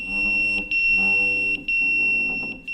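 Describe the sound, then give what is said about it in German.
A firefighter pager's alert tone sounds as volunteer firefighter Jonas Schürhoff's pager goes off in Hagen, Germany, on 13 July, showing water in a basement: a loud, steady high-pitched electronic tone over a buzzing harmonic drone, broken by brief dropouts into repeated pulses. No voices. “Ich sitze auf der Couch, gucke Fernsehen, mein Piepser geht, ich gucke drauf, und sehe Wasser im Keller.”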